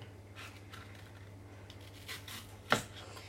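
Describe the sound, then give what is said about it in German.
Apple skin being peeled with a knife: a run of soft, short scraping strokes, ending in one sharper slicing cut, over a steady low hum. No one speaks. “Und jetzt sollte ich irgendwie die Schale noch abkriegen.”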